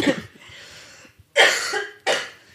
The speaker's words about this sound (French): Attendez, je tousse.